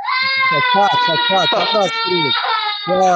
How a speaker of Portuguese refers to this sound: Amanhã estamos de volta, de volta à programação normal lá do nosso estúdio, com a criança chorando aqui, mas tudo ah. certo.